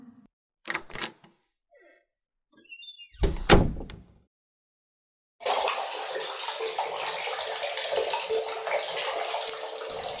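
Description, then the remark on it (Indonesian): A few short knocks and clatters, then water suddenly gushes from a tap in a steady, fairly loud stream that keeps running to the end. “kok ada suara air?”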